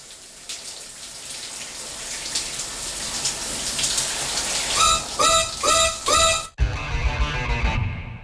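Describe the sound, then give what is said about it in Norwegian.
Water from a shower sprays steadily with a hissing rush, interrupted near the end by a few squeaky, tonal bursts like a tap turning, then shifts to a heavier, lower splashing flow. “Liker du heller ikke å dusje?”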